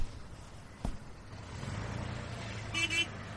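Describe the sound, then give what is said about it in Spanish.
A car pulls up, its low engine rumble growing steadily louder, with a sharp knock early on and a brief honk of the horn near the end. “Pongan sus mochilas en el auto que ya nos vamos.”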